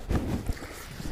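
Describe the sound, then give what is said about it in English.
Wind buffets the microphone outdoors on a beach in uneven low rumbling gusts, with a few heavier thumps standing out over a steady, blustery roar. No one speaks. “It's uh, quite windy and um, I'm trying to avoid getting too much wind in the microphone, so hope this works.”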